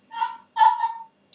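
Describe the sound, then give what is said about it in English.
A dog lets out a high, drawn-out whining noise, two joined pitches lasting about a second, fairly clear, with no one talking over it. “Sorry, that's the dog.”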